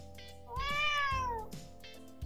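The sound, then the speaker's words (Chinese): A cat lets out a long, drawn meow that rises and then slowly falls in pitch, followed by a couple of shorter, softer mews, with no one speaking. “平时我听不懂猫咪在说什么，但是今天的我竟然听得懂哎！”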